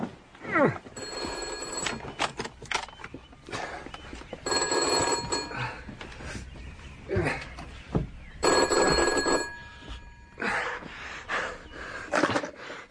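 An old-fashioned telephone bell rings at 7.30 in three loud, rattling bursts, each lasting over a second with pauses between, accompanied by faint breathing and small movement noises.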